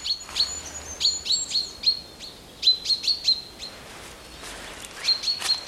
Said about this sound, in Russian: Слушай, как птицы поют.